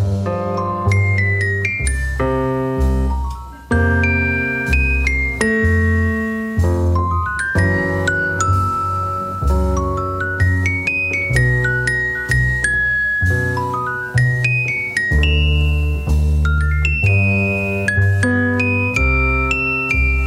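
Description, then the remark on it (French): A jazz solo from a 1957 recording moves between celesta and piano, with the celesta set perpendicular to the piano. Sometimes both are played together. Bright, chiming bell-like notes ring over low piano chords in a steady, loud, unbroken flow with no voices. “l'appareil à la perpendiculaire du piano, si bien qu'on l'entend passer de l'un à l'autre et parfois même jouer les deux simultanément.”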